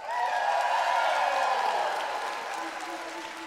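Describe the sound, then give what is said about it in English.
A church audience, gathered as the whole church for one combined service, applauds and cheers for those who normally attend the nine o'clock service, a steady wash of clapping that holds loud for a few seconds before easing slightly, with a sustained musical tone underneath. “Give it up if you're normally in the nine o'clock service.”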